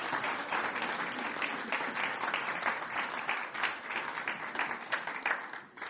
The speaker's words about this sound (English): And so let's give this guy a, round of applause.